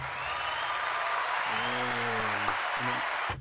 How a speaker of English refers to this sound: And have a special round of applause